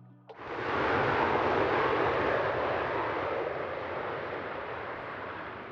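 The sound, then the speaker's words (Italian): A Boeing 788 airliner bound for Philadelphia flying: a loud, broad engine roar kicks in abruptly after a short low hum and holds steady, easing off only slightly toward the end. No voices. “Il Boeing 788 per Filadelfia.”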